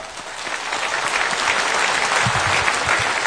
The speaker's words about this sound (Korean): 박수를 주고 합시다.